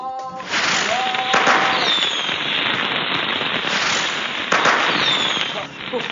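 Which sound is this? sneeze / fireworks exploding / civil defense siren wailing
fireworks exploding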